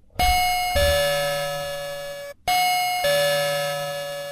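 A bright two-tone bell chime rings twice in succession, each ding-dong clear and close with a long ringing decay, and no voices can be heard.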